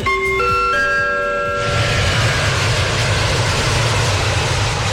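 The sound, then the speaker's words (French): A brief chiming, tonal flourish gives way to a loud, steady roar of an airplane engine, with a deep rumble underneath that continues unbroken to the end. No one speaks. “Allez, je vous emmène pour le truc de fou aujourd'hui, faire un tour en avion.”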